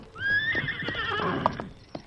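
A horse whinnies loudly in a long, rising and wavering neigh, reacting to the smell of another horse at night at a camp beside a spring in rocky hills of the Chalk River Valley, while hooves stamp and clop in a few sharp knocks near the end.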